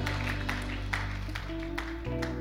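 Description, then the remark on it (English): A crowd applauds with a dense, steady wash of clapping and a few sharper claps standing out, while sustained low keyboard or organ notes hold underneath. “Let's give that person a round, of applause and those online.”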